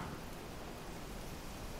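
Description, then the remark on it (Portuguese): Steady rain pours down in a continuous, even hiss with no breaks or distinct drops standing out, fairly soft and uniform throughout, with no voices present. “O líquido guardado finalmente se despenca das nuvens, mas eu não possuo mais vontade de provar do seu gosto.”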